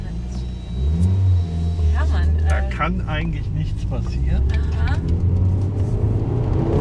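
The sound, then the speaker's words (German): A car built in Saarlouis rumbles steadily and revs up loudly near the start on a test track, staying prominent throughout while people talk briefly over it from inside or beside the vehicle. “Aber Sie sehen, dieses Auto macht eigentlich alles mit.”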